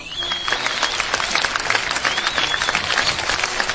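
A steady round of applause for a placed contestant on a Portuguese-language program, many hands clapping in a dense, continuous patter that holds at an even loudness throughout, with a faint whistle-like tone rising and falling above it.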